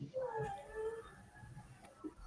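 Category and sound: animal, dog squeaking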